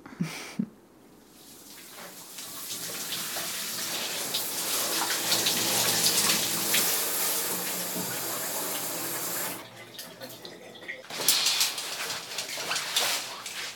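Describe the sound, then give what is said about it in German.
Shower water runs in a steady hiss for several seconds, stops briefly, then gushes again with some splashing. No one speaks. “Ich muss zuerst duschen.”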